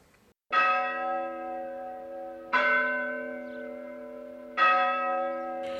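church bells ringing

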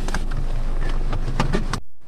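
inside a car

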